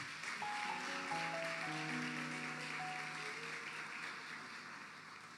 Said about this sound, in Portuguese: Vamos aplaudir Jesus pela vida desse povo bonito.